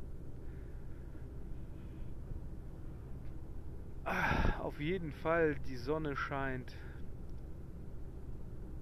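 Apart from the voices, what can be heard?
car driving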